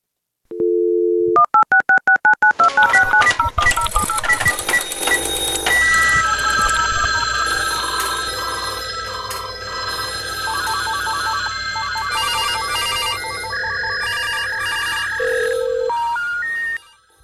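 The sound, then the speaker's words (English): A loud telephone and fax machine sound effect: a dial tone, then a rapid run of dialing beeps, followed by dense, screeching fax-like electronic tones and warbling chirps that continue steadily for about fifteen seconds. “How's that fax machine? It's so good. I forget that there's no music. There's just the sounds.”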